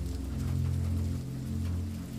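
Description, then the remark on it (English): Rain falls steadily as a continuous soft hiss over a deep, low rumble, even in loudness throughout, with no voices. “The gentle cadence of the rain serves as a sound that delivers you to sleep”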